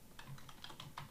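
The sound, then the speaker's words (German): Rapid, irregular key clicks from someone typing on a computer keyboard, fairly quiet, with several distinct taps in quick succession and no voices. “Ich höre dich tippen.”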